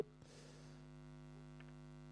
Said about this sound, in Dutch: Nou, de brom is nog niet weg, maar goed, eh, ik weet ook even niet hoe we de brom wegkrijgen. Dus ik stel voor dat we gewoon eh, met brom het gesprek voeren,